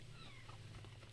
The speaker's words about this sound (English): if you can hear this, uh, you may hear in the background our new kitten, Bobby McGee, who can hear me in here talking and desperately wants to come in this room and is not coming in this room. But we have a new 10 week old kitten.